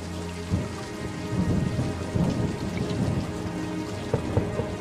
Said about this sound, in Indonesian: Hujannya di luar parah banget.